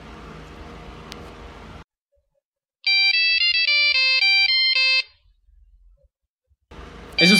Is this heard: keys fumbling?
no